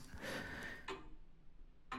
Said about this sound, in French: La pendule bat et marque les secondes, donne l'heure et le temps vrai et le temps du soleil. La tige du pendule est de deux métaux, d'acier et de cuivre.